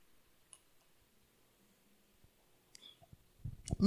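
A speaker pauses a Bible reading to drink water: a few faint clicks and small handling noises in near silence, then a short burst of louder sipping and swallowing sounds at the very end. No one speaks.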